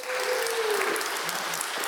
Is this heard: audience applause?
yes